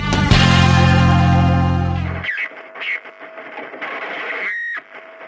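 An Argentine rock song, the first track of a new album, with a loud, heavily distorted guitar chord ringing out for about two seconds, then cutting away to sparser, effects-heavy guitar noises and swooshing tones.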